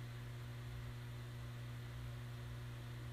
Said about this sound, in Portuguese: Né, só o barulho do meu ventilador no fundo. Apenas meu silêncio, né, pra você.